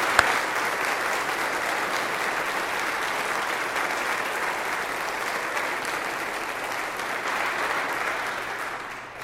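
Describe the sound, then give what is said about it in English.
Audience applause for their dean and his clergy team fills the whole stretch, a dense, steady wash of many hands clapping at even loudness, with no voices rising above it before it tapers slightly at the end. “And I want you to embarrass uh, your dean this morning and his clergy team and give him a big hand of applause for all the good work that he does for you.”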